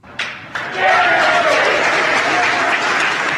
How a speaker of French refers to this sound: Les applaudissements depuis la salle de contrôle, c'était il y a deux heures tout juste.